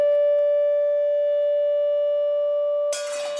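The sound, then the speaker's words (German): A loud, steady resonant tone from a loudspeaker and tone machine, with faint higher overtones, rings for about three seconds as a glass vibrates along with it, then breaks off into a sudden bright crash of the glass shattering. “Das Glas schwingt mit, es wird sehr laut auf einen Schlag und ganz plötzlich zerspringt das ganze Glas.”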